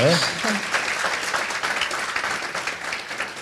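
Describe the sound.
An audience at Prom Kultury in Saska Kępa applauds steadily, a dense wash of many hands clapping at an even loudness throughout, with a brief voice audible at the very start.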